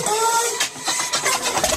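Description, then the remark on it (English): A propeller plane's engine starts up as the pilot turns the ignition: a whirring starter whine gives way to rough, sputtering mechanical bursts, loud, with no voices. “This plane's about to get going. The pilot is turning the ignition.”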